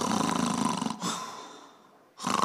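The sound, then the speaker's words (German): A voice imitates loud snoring: a rough, rattling inhale, a trailing wheezy exhale fading out, then another harsh snore starting. Forceful, with no other sounds around it. “Sage Herr, was höre ich? Europa schnarcht.”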